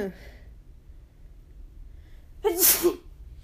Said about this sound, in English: i might sneeze soon